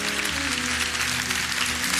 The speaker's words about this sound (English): That's a golf clap. Can you act like some people just walk in?